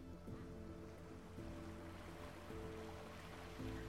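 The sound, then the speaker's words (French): A steady, hissing wash of ocean surf fills the background, with no distinct breaks between waves, while low, sustained musical tones drift underneath. “Entendre le son des vagues et les silences entre chacune d'entre elles.”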